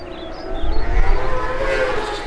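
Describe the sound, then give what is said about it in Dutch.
A steady, distant engine drone swells gently as motorcycles approach from far away over the heath in late June, heading to the Assen circuit for the annual TT, with a deep rumble underneath and a faint high whine, continuous throughout with no voices. “Totdat ergens eind juni van ver over de heide en ook uit alle andere richtingen ineens gebrom klinkt.”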